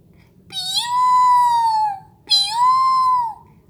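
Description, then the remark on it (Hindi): Two long, wailing calls of a dancing peacock in a forest in winter sunshine, each a loud harmonic cry that rises and then holds a steady pitch before trailing off, separated by a short pause over a low, constant background rumble. “तुम्हारी दाई तरफ मोर है रणवीर अंकल ने चहकते हुए कहा क्या वो नाच रहा है तुलसा ने पूछा हाँ अंकल ने कहा जाड़े की धूप में उसके पंख हीरे पन्ने से भी ज्यादा चमक रहे हैं और बहुत खूबसूरत दिख रहे हैं”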